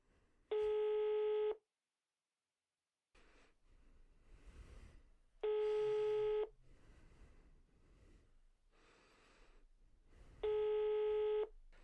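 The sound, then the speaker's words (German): An outgoing phone call's ringing tone, calling someone on the island of Sylt: three loud, steady one-second tones spaced about five seconds apart, with faint background noise and no talking in the gaps. “So, Achtung, kleinen Moment, ich rufe ihn jetzt einmal an.”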